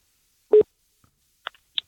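A telephone line tone sounds once during an outgoing call to reach two guests for a radio programme, a short, steady mid-pitched beep, followed by a few faint clicks on the line. No one speaks.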